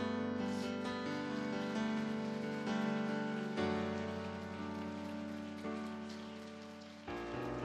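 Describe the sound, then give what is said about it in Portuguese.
Steady, dense applause praising the Lord during a worship service runs the whole way through, crackling evenly over sustained musical tones underneath, with no one speaking. “As palmas louvam o Senhor.”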